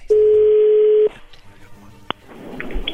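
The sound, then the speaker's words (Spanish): A phone line rings once with a steady, loud one-second tone, then drops to faint line hiss with a single sharp click. “Ahí entró la llamada.”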